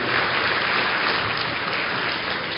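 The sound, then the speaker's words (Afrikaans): An audience claps steadily, a dense wash of many hands applauding together at an even, fairly loud level throughout, with no voices heard over it. “Geef hulle 'n lekker hande klap toe.”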